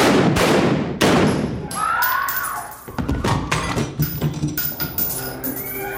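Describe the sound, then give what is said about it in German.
Several loud, sharp gunshots ring out a few seconds apart in a school-shooting scene from a TV series, amid a dense, noisy background with faint cries or shouts of screaming students and a fading reverberant tail. “Was gerade passiert, spielt sich nur in unseren Köpfen ab. Schüsse, schreiende Schüler.”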